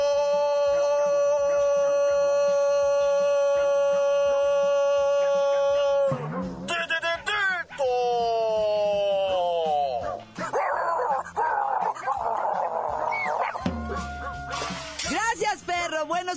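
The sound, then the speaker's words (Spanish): A dog howls in a long, steady wail, then breaks into a run of loud barks, yips and whining howls that rise and fall over several seconds. “¿ya oyeron? Entrenen a sus perros o terminarán sacrificados.”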